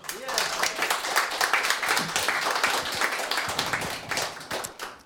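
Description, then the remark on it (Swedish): An audience applauds steadily for about five seconds as a singer and a pianist come on stage, a dense wash of many hands clapping at once, with some vocal chatter or cheering mixed into the crowd noise. “En applåd!”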